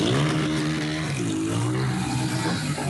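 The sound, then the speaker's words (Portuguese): A motorcycle engine revs loudly and continuously, its pitch dipping and then climbing again as the throttle is worked, with a rough background roar and no voices, as motorcyclists do stunts at a late-afternoon street party in Butantã. “No Butantã, do outro lado da cidade, a festa começa no fim de tarde som alto nos carros, gente aglomerada e motoqueiros fazendo manobras.”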